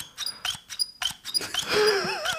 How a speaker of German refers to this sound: Ähm, ich würde sagen, es ist ein Locher.